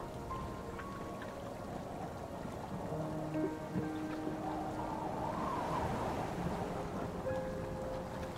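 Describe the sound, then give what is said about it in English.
Heavy storm rain pours in a steady, dense hiss throughout, with faint low tones and creaks threaded underneath and a slight swell in intensity toward the middle. No one speaks. “Onward you continue through the storm.”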